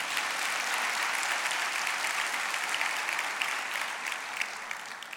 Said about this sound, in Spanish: Ya, date un aplauso, bendito Cristo de la gloria.